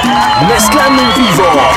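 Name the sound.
crowd applause and cheering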